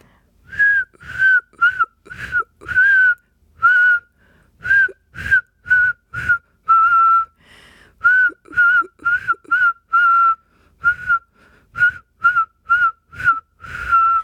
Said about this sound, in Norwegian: Nydelig. Eh, det var en glede å kunne få høre deg plystre.